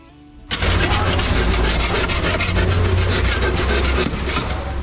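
Loud sawing and sanding on wood during the renovation of the Librería Reguera bookshop in Seville, starting abruptly after a brief quiet moment, with rapid rhythmic rasping strokes and a steady low rumble underneath, continuing without pause.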